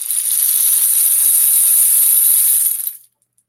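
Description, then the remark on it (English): A homemade bead-filled rain stick, tilted during a sound healing session, pours out a steady hiss of trickling beads for about three seconds, bright and even throughout, then stops abruptly into silence. “This is a, um, a rain stick that I made.”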